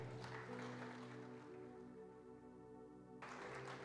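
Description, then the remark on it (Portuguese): An audience claps together as applause to God over a sustained keyboard chord; the clapping fades midway, leaving held organ-like tones, then swells again near the end. “Dê uma salva de palmas a Deus nesta hora.”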